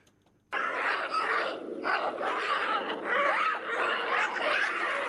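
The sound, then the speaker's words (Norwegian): A dense, continuous chorus of harsh barking and shrieking calls from a troop of baboons, loud and overlapping, starting abruptly after a brief silence and carrying on without pause. “Det her er faktisk bavianer også.”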